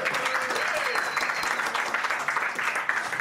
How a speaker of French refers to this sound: Vous pouvez l'applaudir aussi, le Hard Rock Café.